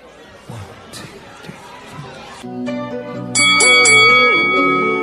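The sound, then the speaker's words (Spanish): Over a murmur of crowd chatter, a bell begins ringing halfway through, its bright metallic tone swelling louder and sustaining near the end, ringing steadily. “Bájele a su campana.”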